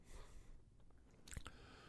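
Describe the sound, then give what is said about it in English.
A female dog chews and gnaws on something: quiet chewing with soft wet mouth sounds and a sharp crunchy bite near the end, no voices present. “She's chewing something.”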